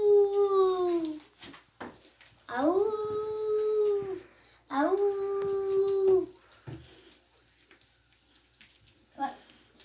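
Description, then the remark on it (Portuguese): A child's voice imitates a lion's roar with three drawn-out, wavering, loud vocal calls separated by short pauses, followed by quieter background sounds. “O … vai fazer o som do leão.”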